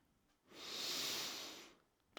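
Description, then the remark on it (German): A single deep, drawn-out inhale through the nose, a soft airy rush swelling and fading over about a second and a half, quiet with no talking. “Ich lade dich ein, deine Augen zu schließen und erstmal tief ein”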